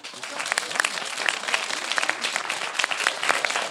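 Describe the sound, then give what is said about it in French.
An audience applauds steadily in response to a question put to them, many hands clapping in a dense, continuous patter for a few seconds without pause. “Par applaudissement, qui est d'accord avec ça Qui préfère préfère, par applaudissement, qui préfère être seul que baisser son niveau d'exigence”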